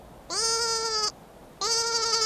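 A small brown lamb, sitting on its hind legs, bleats as loudly as it can in its small voice, twice, each long, strained cry about a second, separated by a short pause; clear with no talking.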